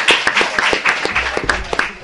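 A small audience bursts into applause, many hands clapping in a dense, irregular patter that stays fairly loud and close throughout the brief moment.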